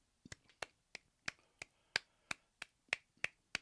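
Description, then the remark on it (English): Light, polite golf claps, about eleven crisp, sharp pops in a steady, unhurried rhythm, fairly soft and with no voices over them. “definitely golf claps for that, man.”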